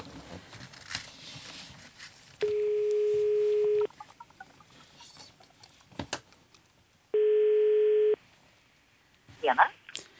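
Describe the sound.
A phone call being placed rings out: two long, steady ringback tones about four seconds apart, loud, with brief dialing-like clicks and faint background voices between them.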